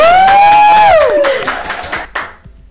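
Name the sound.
applause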